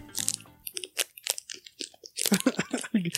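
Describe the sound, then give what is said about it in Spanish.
Crisp crunching of a snack being bitten and chewed, a quick run of sharp crackly bites with brief pauses between them, with faint voice sounds mixed in. “aquí pues es que aquí quiere comer.”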